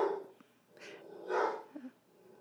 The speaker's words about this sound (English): Is someone having a hard conversation in the living room? Yeah, it sounds like my dogs are very upset. they don't care for this dating business either.